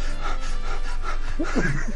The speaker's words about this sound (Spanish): porque puedes empezar acelerando tu respiración